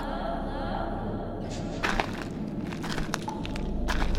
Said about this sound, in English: I had stumbled across a hidden cave, an inner sanctum within the inner sanctum. It was dark and echoey, and I could hear my own footsteps like like they were being played back to me at full blast via an HD TV with speakers.